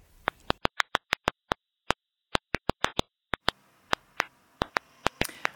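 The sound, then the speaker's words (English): Sharp, dry clicks from a stressed, dehydrated plant, slowed to an audible pitch: about twenty brief snaps at irregular intervals, some in quick pairs, popping against a faint hiss with no voices. “Actually, it's the sound of a stressed out, unhappy plant, with the frequency lowered so that our human ears can hear it.”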